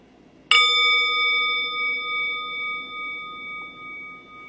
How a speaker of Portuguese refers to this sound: E eu vou convidar o sino a soar e a gente vai continuar quieta por um tempo.